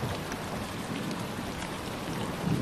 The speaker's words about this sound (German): Du merkst, wie es beginnt aufzuziehen und wie es anfängt zu regnen.